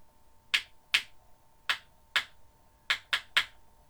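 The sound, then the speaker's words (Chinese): A small hammer taps on a shoe seven times in an uneven rhythm as an old man makes shoes in a small shoe shop, each strike a crisp, bright click with a short decay, heard alone with no talking. “这一天，小鞋铺的窗口里又传来了一阵阵敲锤子的声音，像往常一样，是老爷爷正在做鞋呢。”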